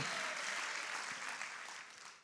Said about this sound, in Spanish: Así es que usted levante su adoración, levante su aplauso y goces en esta mañana porque el Rey está en medio nuestro.